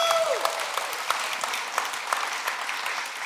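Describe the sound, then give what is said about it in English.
A church audience claps steadily in thanks for the guest preachers of the last three weeks, a dense wash of overlapping hand claps at moderate volume that keeps going without pause, with a few faint whistles rising above it. “Come on, if you have been grateful for the messages you've heard the last three weeks, uh, can you put your hands together?”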